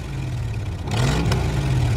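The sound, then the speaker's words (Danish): Motorcycle engines rumble steadily as a long row of motorcycles passes the town sign and rides down the town's main street, Vesterhavsgade, on the afternoon of 21 July; the sound swells into a louder, rougher revving roar partway through, with no voices. “Om eftermiddagen den 21. juli brummer det uden for Nørre Vorbøger mcu lyderne passerer byskiltet og kører ned ad byens hovedgade, Vesterhavsgade, på en lang række med veste og i højt humør.”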